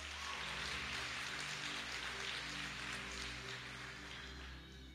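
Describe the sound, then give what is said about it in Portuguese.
A church audience applauds for Jesus steadily for the full five seconds, a dense, loud crackle of many hands with no voices, easing off only slightly at the end over a low steady hum. “Aleluia, se é para Jesus, aplaude com toda a tua força.”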